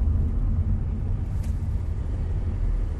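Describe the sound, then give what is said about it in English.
Heavy road traffic rumbles steadily and loudly, a deep low drone of many large trucks, with a brief hiss partway through like an air brake. No one speaks. “There's a lot of trucks everywhere.”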